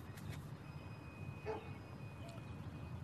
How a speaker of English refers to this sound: You can hear dog, dog in the background.